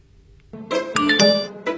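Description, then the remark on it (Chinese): A phone text message notification chimes, a short bright melody of four or five quick ringing notes that rises out of near silence and ends after about a second, with no voices. “谁的短信啊？”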